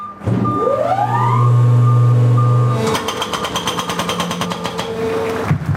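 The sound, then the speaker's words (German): A heavy engine revs up and drones loudly, then a hydraulic hammer starts pounding tunnel rock in rapid, steady, harsh blows, continuing to the end with the machine still running, as work breaks into the mountain for a planned 2.5 km safety gallery at the Isla Bella tunnel on the A13. “Der Tunnel wird dann angebrochen. Wie man gehört hat, ist der große Knall ausgeblieben”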